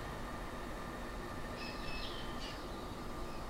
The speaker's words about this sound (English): The sound of crickets. Did you hear that?